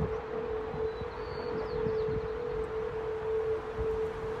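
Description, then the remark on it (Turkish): A steady, eerie tonal howl of strong wind blowing between a bridge's metal bars, heard from inside a house, holding one sustained pitch over a rumbling gusty background, loud and continuous like a siren. “Abi olay şeymiş şimdi o rüzgar esiyor ya o şeylerin ne o demirlerin arasından geçip böyle bir ses çıkarıyormuş.”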